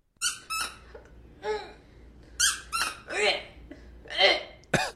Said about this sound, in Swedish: det är sån här squeaky toy som en, som, en, som en hund tuggar på.